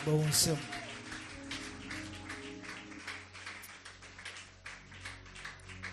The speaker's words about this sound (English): Come on and give Jesus a mighty hand clap, everybody.